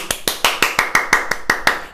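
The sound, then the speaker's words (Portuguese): Applause in the form of a quick, steady run of about nine sharp claps, evenly spaced and fairly loud, with no talking over them. “Uma salva de palmas, uma salva de palmas para os cringe”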